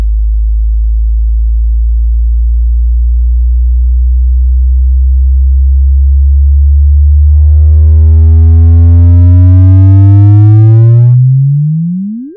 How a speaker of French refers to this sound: des chercheurs se sont amusés un peu plus tard, l'an dernier, à, transformer cette onde gravitationnelle en onde sonore pour essayer de, nous faire écouter ce que, pourrait être ce que le, son, euh, le, chant, le, chant du signe de ces trous noirs.